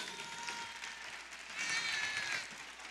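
A short burst of audience applause, a steady wash of many hands clapping at moderate volume that swells slightly toward the end, with no voices over it.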